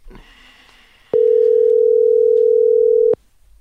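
A phone line being called: a few faint dialing beeps give way to one loud, steady ringing tone that holds for about two seconds, then cuts off abruptly into near silence.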